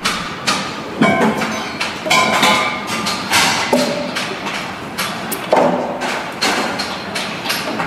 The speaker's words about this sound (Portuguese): Uh, os vizinhos da OBEI estão em obras. Querem ouvir o som? Esperem lá.